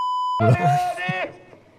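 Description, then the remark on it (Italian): A single steady electronic beep, a clear, pure censor-style tone held for about a third of a second, then cut off abruptly as a man's voice starts talking. “Dov'è, il beep per il fan?”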